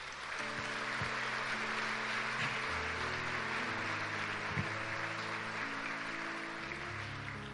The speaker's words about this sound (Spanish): Le puedo dar un aplauso a nuestro buen Dios.